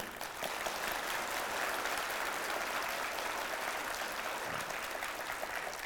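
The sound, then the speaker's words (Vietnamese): A crowd applauds steadily for several seconds, a dense, continuous wash of clapping hands that stays loud and even throughout, with no talking over it. “Vỗ tay to lên cho sướng.”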